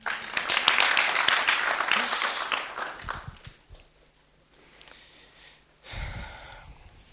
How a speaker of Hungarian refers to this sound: Köszönöm szépen, adjunk nekik egy nagy tapsot.